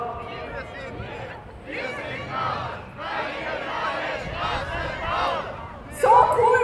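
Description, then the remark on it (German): A large protest crowd chants loudly in rhythmic, shouted phrases against the building of new roads, voices blending into a dense roar that rises and falls in waves, with a burst of cheering and whoops at the end. “laut ihr seid, das ist perfekt, weil wir werden jetzt dann weitergehen in die Richtung.”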